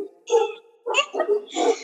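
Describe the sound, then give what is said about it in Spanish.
A dog barks three times in a steady rhythm, each bark short and fairly loud, with no other voices or sounds. “o sea, esta es la vida, hay perros, hay gatos, hay...”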